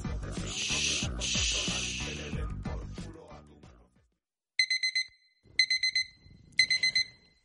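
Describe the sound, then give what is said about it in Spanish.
A digital alarm clock in a house in the Maresme beeps at dawn, near the sea, in three quick bursts of four sharp, loud electronic tones each, right after a passage of music fades out. “Sona el despertador a una casa del Maresme.”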